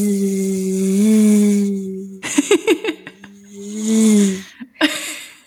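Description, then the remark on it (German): A voice imitates a buzzing mosquito with a steady nasal drone lasting about two seconds, breaks into short choppy bursts like laughter, then buzzes again before trailing off. “Schalte bitte nicht ab, ich höre auf mit dem Summen.”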